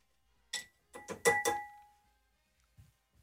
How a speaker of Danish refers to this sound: Men det er alligevel ikke tit, man øh, bliver, bliver glatbarberet live, on air. seriøst, kan man ikke høre det her? Jeg tager, lige, tager mikrofonen ja. lidt op til her. Det lyder, det lyder ligesom, når en øh, kat ligger på en.